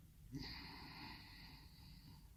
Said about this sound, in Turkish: Şimdi derin bir nefes alın.